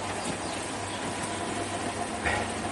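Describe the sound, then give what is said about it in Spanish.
A washing machine runs with a steady, droning mechanical hum and a low rumble, holding at an even level throughout, with a brief brighter whoosh near the end and no talking. “Esto que veis de fondo es la lavadora.”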